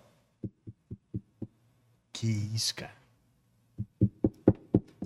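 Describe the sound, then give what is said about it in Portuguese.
Knocking on a door: a steady series of five dull knocks, a man briefly exclaims, then another louder run of six quick knocks follows in the same even rhythm. “batendo na porta”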